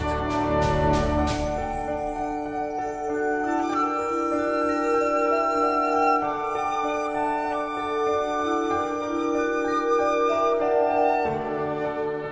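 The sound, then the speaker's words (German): Delicate, playful music with bright chiming mallet tones of glockenspiel and vibraphone over soft piano, sparsely and transparently instrumented, steady and gentle throughout with no voices. “Man hört sehr verspielte Musik mit Mallets, mit Glockenspiel, mit äh, Vibra, mit Klavier, sehr zart instrumentiert sehr transparent.”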